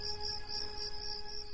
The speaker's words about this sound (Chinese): 蟋蟀一声声的鸣叫着。